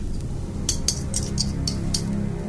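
Surgical instruments, such as hemostatic forceps and surgical scissors, clink against each other as they are handed over during surgery: about six bright, sharp metallic taps in an uneven run over a low, steady background rumble, with no voices.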